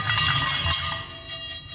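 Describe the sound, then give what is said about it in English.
Continuous rattling and skittering of cumin and black and white peppercorns toasting in a dry pan with no oil on a hot gas fire in the kitchen of Station 12. The pan is shaken in quick repeated bursts over a low, steady burner rumble, with no one talking. “That is the sound of me shaking a pan,”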